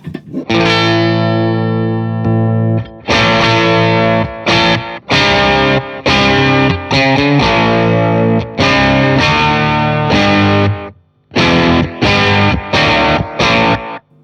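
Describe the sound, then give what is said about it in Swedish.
Electric guitar played through stacked low-gain overdrive pedals with a Silverbean pedal engaged, loud, with sustained chords and short choppy bursts separated by brief pauses, no voices. “Vi ska se om man då kör in Sweet eh, Silverbean i det här. Hur låter det då?”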